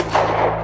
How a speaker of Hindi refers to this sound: assistant driver ने एक और फायर किया